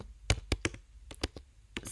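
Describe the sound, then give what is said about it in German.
Typing on a computer keyboard while searching online: a quick, uneven run of about ten sharp key clacks over two seconds, with faint hum between strokes and no voices. “so, jetzt habt ihr meinen Tippen gehört.”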